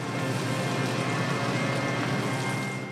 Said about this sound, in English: He's caramelizing onions in a pan